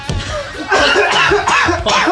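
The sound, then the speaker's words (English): Someone coughs in a series of loud, rough bursts, with strained voiced breaths between them and no clear words. “Don't you dare stop it. Keep coughing.”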